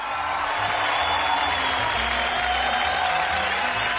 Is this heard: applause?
yes